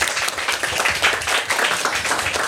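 An audience at an event bursts into steady applause for a guest, a dense wash of many hands clapping at a constant, fairly loud level across the whole stretch, with no voices standing out.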